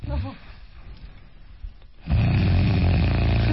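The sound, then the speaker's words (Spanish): A voice imitates the snoring of sleep apnea: a short rasping snore, then a quieter stretch like held breath as breathing stops, followed by a loud, rough, sustained snort as the apnea breaks and the breathing bursts back. “Ahí está la apnea, está dejando de respirar. Sí, ahí se rompe la apnea.”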